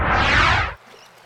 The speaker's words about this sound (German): Eine einsame Insel mitten im Ozean. Ah, schon viel besser.